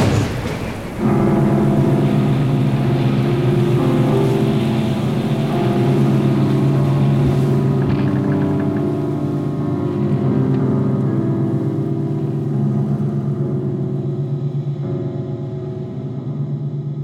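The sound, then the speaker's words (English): A ship breaks apart in a storm: a loud, continuous low rumble with a droning, groaning undertone that holds steady throughout, with no voices. “The ship is split in two as the storm intensifies.”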